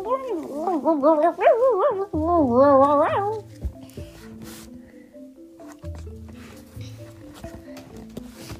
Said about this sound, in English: The wolf howled and pointed up at the sun, which almost looked like the moon for some reason. Then the wolf laughed